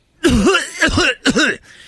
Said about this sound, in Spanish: el otro día estaba tosiendo ahí, ¿eh?